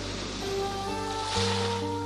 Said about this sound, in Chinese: 啊，涛声，涛声，又一阵阵响起，搅动大海深蓝、浅蓝的记忆。